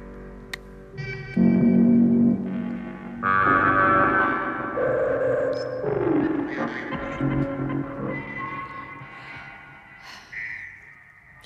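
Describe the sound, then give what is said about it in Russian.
Electronic synthesizer tones, electronic variations starting from a pure tone, shifting through sustained, buzzy pitches, with a downward glide midway and a higher steady tone near the end, moderately loud with no voices. “Так это синтезатор сейчас звучит-то, чтобы нам было понятно.”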